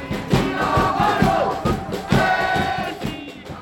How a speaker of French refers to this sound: journaliste qui nous a généreusement partagé des enregistrements qu'elle a fait dans les cortèges ces derniers jours, des sons que vous allez entendre ici et là au fil de l'émission.